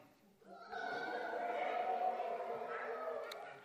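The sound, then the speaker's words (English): An audience at a service, asked for jungle sounds, erupts into a sustained, noisy chorus of hoots and shrieks, many people imitating monkey calls at once for a few seconds. “Can you give me give me give me your best monkey?”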